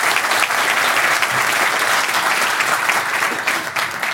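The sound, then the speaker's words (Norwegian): An audience claps steadily for about four seconds to welcome Labour Party politician Martin Kolberg, a dense, even wash of many hands with no voices or other sounds over it. “La meg klappe for Martin òg, ja.”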